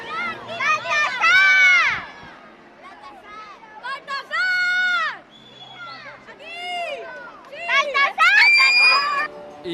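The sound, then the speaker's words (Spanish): A large, excited crowd of thousands of children shouting and screaming outdoors at the Three Kings parade in Donostia (San Sebastián), which set off at 6 pm from the Boulevard on its traditional route, as sweets rain down. High voices overlap in loud bursts with brief lulls of chatter between them, lively. “Y así seguimos en un desfile que ha arrancado hace ya una hora, a las 6 de la tarde, desde el Boulevard, por fin sin restricciones y con el recorrido tradicional.”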